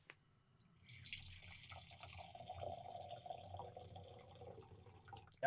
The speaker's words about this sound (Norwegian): Til, til eventuelt, glass, til eventuelt lyttere så er dette helling av vinglass, ikke noe annet.